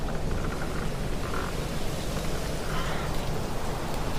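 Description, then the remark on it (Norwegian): Heavy rain pours down in a dense, steady hiss that fills the whole space, with no pauses or voices, just a constant wash of falling water, on a Wednesday in September in the harbour of Stavanger. “Det regner tett denne onsdagen i september.”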